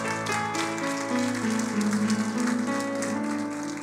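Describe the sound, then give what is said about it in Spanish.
A church audience claps loudly and steadily in a dense, sustained burst of applause for Christ, with sustained keyboard or organ notes sounding underneath throughout. “Denle ese aplauso fuerte a Cristo.”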